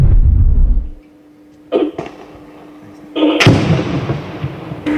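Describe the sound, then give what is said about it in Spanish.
Gunfire at a Mexican Army shooting range during weapons training of military personnel of the Twelfth Military Region: a deep booming report fades out, then two sharp cracks, then a louder blast that rolls into a sustained echoing rumble, heard outdoors. “Cuando estuvieron tirando a los ahí se va el disparo.”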